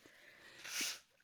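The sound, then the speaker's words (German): A single quick sneeze, a short breathy burst of hissing noise that swells and cuts off within about half a second, fairly soft and heard on its own without talking. “Gesundheit”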